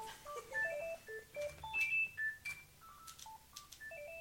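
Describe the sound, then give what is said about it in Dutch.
A telephone rings with an electronic melodic ringtone, a quick run of short beeping notes hopping up and down in pitch, moderately loud, with no one talking. “Ah, Wacht even, wat zei je, wat zei je ook alweer voordat, voordat de telefoon ging rinkelen?”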